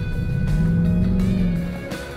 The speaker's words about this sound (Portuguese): Ó, fazer uma freada aqui mais dentro da curva, ele responde muito bem com os freios também.